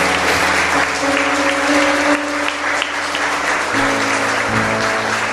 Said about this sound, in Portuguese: Amém. Amém. Dá uma salva de palmas a Deus aí. Glória a Deus.